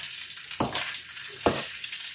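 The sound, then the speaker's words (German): Steady hiss of batter frying in a pan, with two distinct scraping strokes of a utensil across the pan's surface. Moderately loud, no voices. “Ich sehe jetzt die Pfanne mal ein bisschen höher wieder.”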